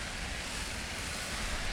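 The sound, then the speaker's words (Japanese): A steady, soft hiss of shower water spraying onto the canopy of a Silent Umbrella, a noise-reducing umbrella, in a test; continuous and even with no distinct drops, muffled and fairly quiet throughout, with no voices. “では続いてサイレントアンブレラにシャワーを当ててみます”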